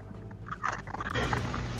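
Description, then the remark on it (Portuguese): A big dog chews and gnaws on a wooden arm, with irregular crunching, clicking bites and soft snuffling over a low, steady background rumble. “Tá com o seu braço inteiro na boca. Seu braço de madeira, obviamente.”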